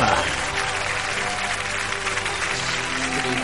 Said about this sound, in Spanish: el aplauso, chicos.